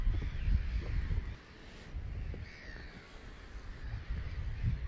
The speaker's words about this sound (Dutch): Ik hoop dat jullie de vogels kunnen horen.